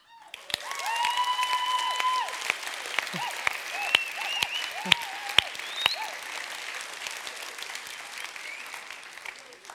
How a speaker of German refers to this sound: Das ist wirklich Applaus mal wert.